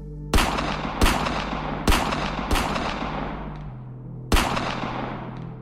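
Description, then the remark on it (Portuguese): Five sharp .38 revolver shots, fired from the ground into a man's back, ring out at uneven intervals, four in quick succession and a fifth after a pause, each loud with a ringing decay over a low rumbling backdrop. “Ainda no chão, saquei meu 38 e alvejei o filho da puta com cinco tiros nas costas.”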